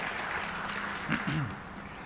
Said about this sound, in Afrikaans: Geef hulle ook 'n lekker hande klap toe.